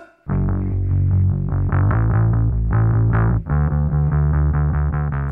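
Loud, heavily distorted punk rock plays with driving guitar chords and a steady pounding beat, a brief dropout midway before the full band crashes back in.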